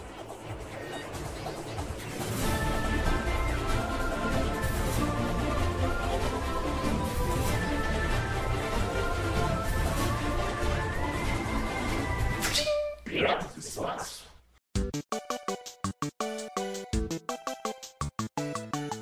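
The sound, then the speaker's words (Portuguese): A short intro jingle: a full, steady musical bed with sustained melodic tones, a quick whooshing sweep, then a choppy, stuttering rhythmic section with abrupt cuts. No one speaks. “vamos lá pro, pra vinheta.”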